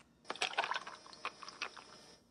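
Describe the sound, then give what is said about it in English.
A drink being poured: a quick cluster of bright clinks and splashy liquid bursts, then a few scattered clinks trailing off over about two seconds, with no voices. “You can relax, watch TV, pour yourself a drink.”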